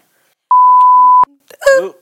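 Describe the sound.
A loud, steady electronic censor bleep at a single mid pitch holds for under a second, cutting off abruptly, followed by a brief burst of someone's voice.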